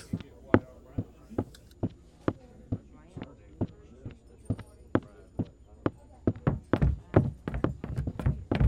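Horse hooves clip-clop at a steady walking pace, each hollow knock distinct, then the hoofbeats quicken and crowd together toward the end.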